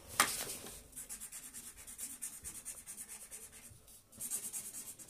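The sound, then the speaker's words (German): A pen that is running dry scratches across paper in quick, repeated back-and-forth strokes, fairly soft, with a brief pause before the drawing resumes. No one speaks. “40 malen können wir es jetzt auch nicht mehr. Der Stift malt nicht mehr nehmen wir halt diesen anderen.”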